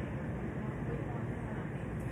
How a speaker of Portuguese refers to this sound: Eu hoje eu estou lendo no restaurante porque aqui tem um ventinho, mas vocês conseguem escutar o, o barulho do, do, do, mar ao fundo, né?